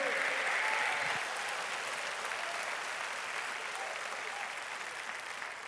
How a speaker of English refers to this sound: And if you know I'm right, you ought to clap your hands and praise the the Lord.